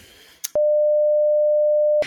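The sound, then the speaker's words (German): A single steady censor bleep, a pure mid-pitched tone lasting about a second and a half, loud and unbroken, cutting in right after a brief burst of sound and ending abruptly. “kannst du das piepen?”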